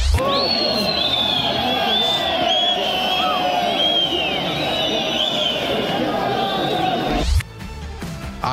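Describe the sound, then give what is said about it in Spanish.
A large crowd from a transport workers' union at the Estadio Municipal de Villingenio in Bolivia roars with loud, sustained whistling and booing as Luis Reddy is sent off the pitch, shrill whistles rising over a dense wall of jeers and shouting for about seven seconds before cutting off abruptly. “Sí, con esas silbatinas y esos abucheos, es que fue despedido a Luis Reddy de la cancha del Estadio Municipal de Villingenio por este sindicato de transportistas en un hecho realmente insólito.”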